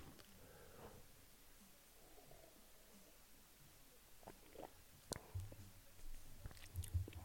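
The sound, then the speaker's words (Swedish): Quiet sipping of red wine from a glass: soft wet mouth sounds and a sharp lip click, then a few low gulping swallows near the end, with no one speaking. “Och ta ytterligare klunk vin.”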